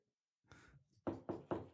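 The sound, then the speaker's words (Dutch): Four firm knocks on a door, evenly spaced, preceded by a brief soft shuffling sound. No one speaks. “Daar wordt aan de deur geklopt.”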